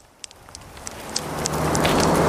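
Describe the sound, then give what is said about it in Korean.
A few scattered drops tap at first, then rain quickly swells into a dense, steady downpour that hisses louder and fuller by the end, with no voices. Sudden heavy rain outdoors at night, after 11 p.m., a few steps outside a convenience store. “비가 오는구나 했는데 곧이어 굵은 빗줄기가 머리를 때렸다.”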